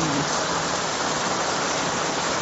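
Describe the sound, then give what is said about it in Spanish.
Steady rain falls in a continuous, dense hiss, spread evenly across the whole stretch with no pauses. Fairly loud, with no voices over it. “Ay, dice Miriam Mateo, que qué hermoso se escucha el sonido de la lluvia, sí.”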